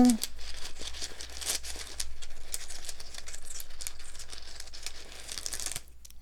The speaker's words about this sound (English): So let me grab my trusty runes. I like to shake the bag up a little bit before I reach in there. And now I'm shuffling through.